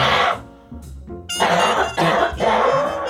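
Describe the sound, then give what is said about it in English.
A series of harsh coughs in quick succession, loud and raspy, with brief pauses between bursts and no speech over them, during a radio broadcast. “you got to hit the cough button.”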